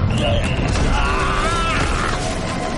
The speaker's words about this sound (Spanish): Una explosión de hielo le empuja hacia atrás y queda desmayado sobre la nieve.